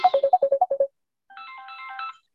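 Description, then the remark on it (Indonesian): A mobile phone ringtone plays during a prayer meeting: a quick run of eight bright, evenly spaced beeping notes, then a pause and a softer, sustained melodic chime. Clear, with no talking. “Wow, ini telepon saya bunyi terus.”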